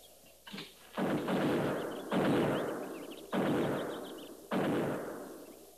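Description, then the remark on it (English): Four heavy buffalo gun shots boom one after another at roughly one-second intervals, each a loud, deep blast with a long rumbling tail, preceded by a softer early report. “Buffalo guns. That's one sound they can't muffle.”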